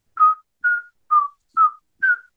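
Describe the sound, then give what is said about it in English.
A person imitates a pet bird's delicate whistle, the soft notes it sings when piano is played: five short, soft whistled notes at a steady pace, each slightly falling in pitch, with no other sounds around them. “But now um, she'll sit really close to it and just listen, turn her head sideways, and I'll play something on the piano and she'll whistle like”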